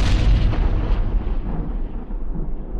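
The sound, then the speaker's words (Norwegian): A sound effect for the Big Bang: a huge, deep explosion bursts out loudly and then rolls on as a low, rumbling roar, its hiss gradually fading over a few seconds. No voices are heard. “An event called the Big Bang.”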